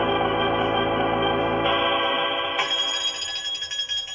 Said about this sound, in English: Suddenly there came a frantic jangle at the front door bell.